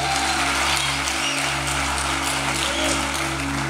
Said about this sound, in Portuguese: Quem não levantou a mão a gente vai ter um apelo no fim desse culto e no culto passado 17 pessoas entregaram a vida para Jesus. Você pode dar uma salva de palmas a Jesus por isso?